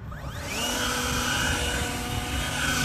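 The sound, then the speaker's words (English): A steady, loud motorized whine with a rising pitch sweep at the start, then a constant high-pitched whirring roar of an electric leaf blower shown off by Dr. Walter Tsou at a press conference at Fairmount Waterworks in Philadelphia, with no voices. “Walter Tsou, a former Philadelphia health commissioner, showing off his electric leaf blower at a press conference.”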